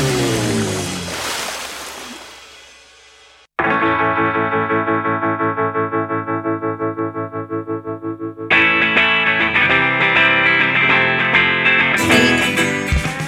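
Instrumental theme music with heavily processed, chorus-drenched guitar: a swelling chord fades, then a pulsing tremolo section builds into a brighter, fuller passage. It plays loud and upfront with no voices.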